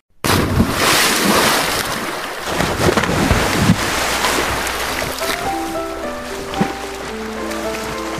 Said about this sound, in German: So, Arschbombe. Arschbombe. Okay. Und Arschbombe! Arschbombe!